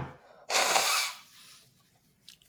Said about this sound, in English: Bless you. Bless you. Uh oh, are you infected?